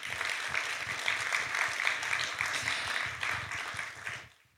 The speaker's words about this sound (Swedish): Jag tycker hon ska få en applåd till.